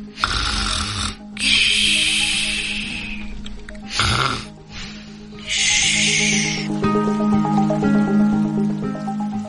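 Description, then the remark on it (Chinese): Loud, rasping snoring from someone asleep in bed, about four long breaths in a slow, uneven rhythm, each with a hissy, breathy rush over a low rumbling drone. No talking. “不过，也不是没有声音，有呼噜声。”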